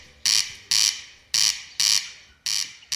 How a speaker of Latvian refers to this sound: Tā ir grieze, jā. Oh. Tā ir grieze.